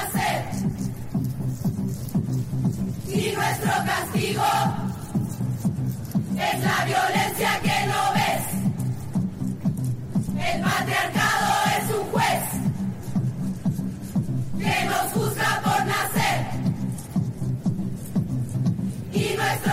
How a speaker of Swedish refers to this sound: Men det är liksom inte själva grejen, utan grejen är det som uppstår då när miljoner kvinnor över hela världen tar sig ut på offentliga platser då och genomför det här, mässar det här, den här sången. Eh, vi lyssnar lite på hur det låter.